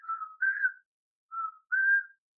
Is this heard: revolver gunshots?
no